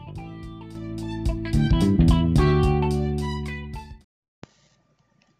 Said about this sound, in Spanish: Ya suenan las campanas y comenzamos.